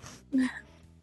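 A single short, abrupt cough with a voiced, throaty edge, fairly loud, fading into a brief breathy tail. No one speaks.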